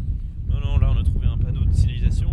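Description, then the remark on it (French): Wind buffets the microphone outdoors with a steady, low rumbling roar throughout, while voices talk over it as people search for a rocking stone. “Il y a un petit peu de vent.”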